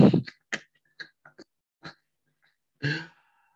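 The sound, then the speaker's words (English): A dog barks in short, sharp bursts: one louder bark to start, then a scattered run of quieter, irregular yaps and a final fuller bark, with no talking. “Please tell you tell, tell your dog shut up, please.”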